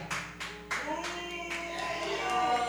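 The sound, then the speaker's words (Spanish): A crowd boos in a sustained, droning chorus of voices, with a few scattered handclaps breaking through near the start. “Eso fue abucheo completo. Sí, ahí no hay, hubo dos aplausos.”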